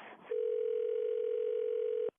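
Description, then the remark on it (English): A steady, unbroken telephone dial tone hums at constant pitch for nearly two seconds as a call is placed, preceded by a brief rustle and ending in an abrupt click as the line cuts off. “Why don't you try and call him now?”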